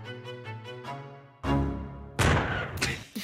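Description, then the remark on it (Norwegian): A short musical jingle for the Radio Revolt show Rådløs, with bright harmonic tones, ends in loud, sharp bursts, like a gunshot effect followed by a crashing, noisy blast that decays quickly. “Jeg liker den lille neckshotet jeg har på slutten der av jingelen.”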